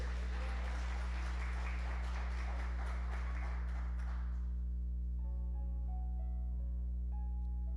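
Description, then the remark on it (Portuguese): An audience applauds the Lord with dense, steady clapping for about four seconds before it fades away, leaving soft sustained keyboard tones over a constant low hum. “Nós vamos fazer, pode aplaudir o Senhor, nós vamos fazer.”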